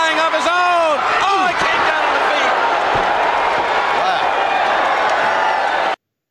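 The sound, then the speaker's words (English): A large crowd in a wrestling arena roars and cheers loudly and continuously during a match between Kevin Sullivan and Tommy Rogers, with whoops, shouts and scattered clapping blending into a dense, echoing wall of noise that cuts off abruptly. “Rogers Sullivan got his feet up when Rogers was coming for that splash, and that crowd was like, "Oh, yeah, that looked it. good." Yeah, they were into it too.”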